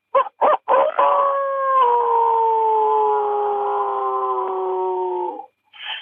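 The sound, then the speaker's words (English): A person mimics a coyote as a locator call to find coyotes during their mating season: a few short yips, then a long, loud, sustained howl that slowly falls in pitch before breaking off, with no one speaking. “And just for our listeners here, one of the great ways oh, when I kill coyotes at this time of the year is I like to howl to try to locate one yeah.”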